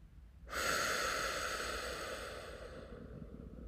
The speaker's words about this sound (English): It's called box breathing, where you inhale for four seconds. Hold at the top for four seconds.